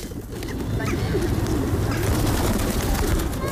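Pigeons coo in a steady, low, throaty murmur that runs without a break, several birds overlapping with a faint outdoor hiss behind them.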